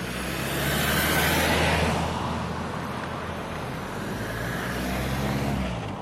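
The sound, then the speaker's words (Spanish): Two cars roll past at the same time on the same street in Les Hommes, Île-de-France, France, on 18 July 2016, their engines and tire noise swelling together and then easing off, with steady low traffic rumble continuing underneath. No one speaks. “Uy, dos carros al tiempo, dos coches, simultáneamente en la misma calle.”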